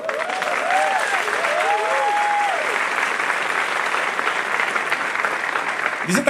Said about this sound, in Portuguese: Todo mundo te conhece, mas eu queria que você ficasse de pé para a igreja aplaudir o Senhor pela sua vida.